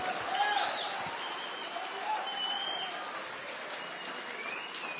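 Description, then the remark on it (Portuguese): An audience applauds for Jesus steadily for several seconds, a dense, sustained wash of clapping, with faint voices calling out underneath. “Você pode aplaudir a Jesus por isso, irmão.”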